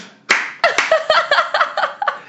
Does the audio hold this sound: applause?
yes